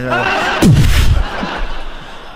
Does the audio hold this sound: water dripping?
no